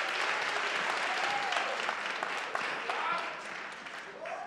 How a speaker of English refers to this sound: Clap it up.